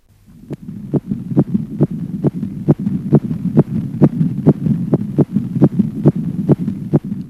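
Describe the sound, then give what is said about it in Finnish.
A fast fetal heartbeat from a fetus in the womb pulses through a monitor, about two beats per second in a steady rhythm of sharp whooshing thumps over a constant low hum, loud with no voices. “Sen vointia seurataan, muun muassa sen sydänääniä kuunnellaan ja ultraäänen avulla otetaan jopa elävää kuvaa sikiöstä.”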